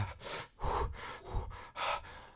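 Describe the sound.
A voice imitates the shock of a cold shower with a series of sharp, breathy gasps, about four or five quick intakes and exhales in an uneven rhythm, fairly loud, with no words.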